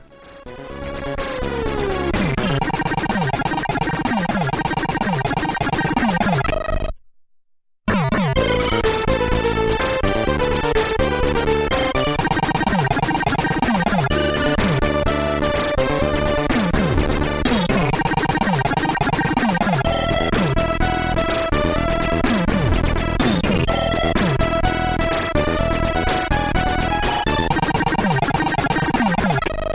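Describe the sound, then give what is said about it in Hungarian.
The finale of a musical composition plays: a dense, loud passage with layered sustained tones and busy, clashing parts, cutting out briefly near the start before resuming at full volume through the end. “Na, hallgassuk meg a kompozíció végét, a finálét.”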